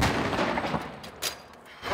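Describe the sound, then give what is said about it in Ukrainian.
Artillery fire rumbles continuously on the eastern front, where the artillerymen of the Da Vinci Wolves battalion work, with both their own and enemy artillery firing; a couple of sharper booming blasts stand out above the dense, noisy roar. No voices are heard. “Тут арта не умовкає, ні наша, ні ворожа.”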